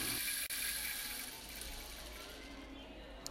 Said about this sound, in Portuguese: Novamente, continuaram a caminhar pelo caminho das pedras amarelas e agora encontraram um rio de águas cristalinas.